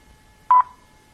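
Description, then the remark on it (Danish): A single short, steady electronic beep, mid-high in pitch, the time signal of the Danish telephone speaking clock Frøken Klokken run by TDC, sounding alone against near silence with a brief fading tail. “hvor man kunne ringe til 0055 for at få det præcise klokkeslæt”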